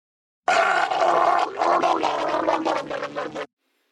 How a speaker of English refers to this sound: celebrities making guttural noises